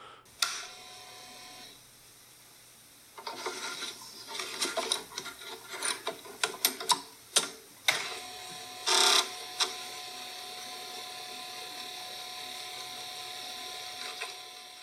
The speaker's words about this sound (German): Dann habe ich die Floppy Disk in das überdimensionierte Laufwerk eingelegt und diesen Schnappverschluss, das war so ein Riegelchen, welches man vor den Diskettenschlitz geklappt hat, verschlossen